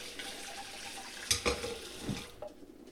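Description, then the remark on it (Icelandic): Tap water runs steadily into a sink as blueberries are rinsed, a clattering splash with a few sharp knocks and sloshes along the way, with no talking. “Og nú ætlum ég að taka bláber skólaður”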